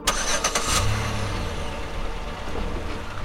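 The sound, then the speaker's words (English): A car engine cranks with a few quick bursts, catches, and settles into a steady low idling rumble, with no voices. “Anas was to drive one car with the other members of the production crew, all posing as his colleagues”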